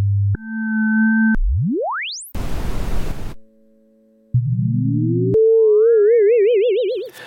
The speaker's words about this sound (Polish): Tutaj jest to zbiór sygnałów testowych o różnym poziomie, kształcie i częstotliwości.